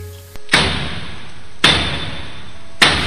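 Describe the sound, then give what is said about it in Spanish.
Three heavy, booming thuds land about a second apart, a fist pounding hard on a door, each blow loud and ringing briefly before the next. “La puerta seguía sonando, cada vez con más fuerza.”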